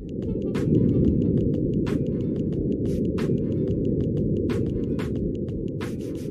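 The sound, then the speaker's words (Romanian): Ambient sound on Mars from the microphone of NASA's Perseverance rover, sent in 2021: a steady, muffled low rumble like wind buffeting the mic, with faint mechanical ticks recurring at irregular intervals and no voices. “roverul Perseverance, trimis de NASA în 2021, a captat câteva probe sonore.”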